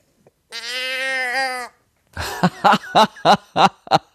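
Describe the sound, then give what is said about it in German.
A single drawn-out, nasal moo from a toy cow noisemaker sounds for about a second, followed by a short burst of rhythmic, breathy laughter. “Sie hat ihre eigene Kuh benutzt.”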